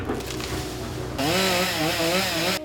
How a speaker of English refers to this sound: The overpowering rumble of chainsaws greeted many the next morning.